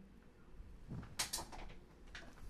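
A chair is adjusted: a low thump followed by a couple of sharp mechanical clicks and a softer rattle, fairly quiet and with no one talking.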